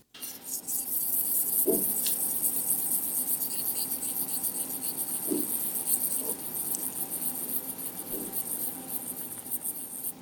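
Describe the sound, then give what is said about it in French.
A steady, dense buzzing drone of cicada-like insects fills the background continuously, with a few faint soft taps scattered underneath; no one speaks. “C'est quoi ce bruit, euh, Héloïse Est-ce que ce sont des cigales Est-ce que nous sommes en Provence en plein mois d'août Mais non, Justine, ce sont des cloportes.”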